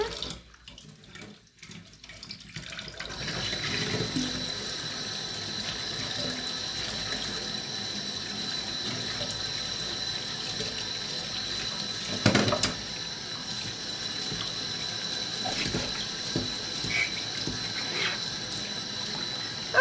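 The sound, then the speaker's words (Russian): Tap water runs steadily into a sink while dishes are washed, with a few soft clinks and a louder knock around the middle. The water starts after a short quiet moment and continues throughout. “что сейчас быстренько вот посудку помою.”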